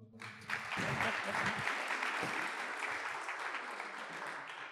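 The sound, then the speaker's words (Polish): An audience gathered from across Poland claps steadily for several seconds for the speakers at a football coaching event, a dense, sustained patter of many hands that starts abruptly and stays fairly loud and even throughout. “I przede wszystkim zacznijmy może od braw dla prelegentów, którzy tutaj przyjechali, żeby podyskutować o szkoleniu o futbolu.”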